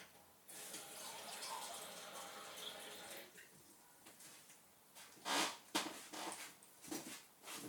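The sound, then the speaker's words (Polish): Water runs in a steady hiss for a few seconds as it is poured from a standard mug, after the funnel and reducer have been taken out, followed after a pause by several shorter splashing pours and clinks. “Wyciągamy ze środka lejek i reduktor, żeby nalać wody. Ja do tego celu używam kubka standardowego.”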